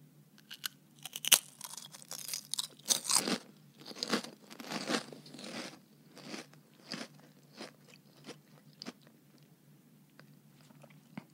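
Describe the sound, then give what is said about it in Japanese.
Crunching of a crisp, salty snack with small hollow spaces inside being bitten and chewed, with sharp, crackly crunches coming fast at first, then spacing out into quieter, irregular chews. No one speaks. “おーいい音ですねそれではいただきます”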